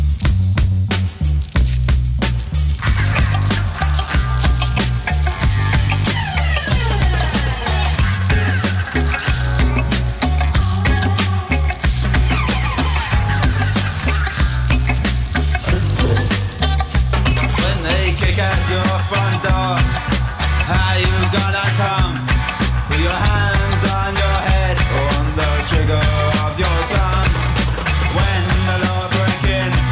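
A punk rock song plays loud and continuous, driven by a heavy repeating bass line under a dense wash of guitars and cymbals, with no talk over it.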